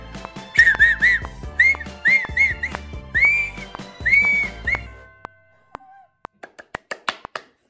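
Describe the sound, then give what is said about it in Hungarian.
A person learning to whistle whistles a short, wavering melody in repeated rising-and-falling phrases, clear, over background clicks and taps, then stops while a few sharp knocks continue. “Még most csak ez, ezzel az egyfajta képen tudok fütyülni.”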